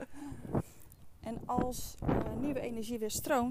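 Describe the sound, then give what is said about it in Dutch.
Wind buffets the microphone with a low, rumbling roar that runs steadily beneath a person talking outdoors, fairly loud in the bass. “en sorry voor de wind, ik zal hem even afdekken.”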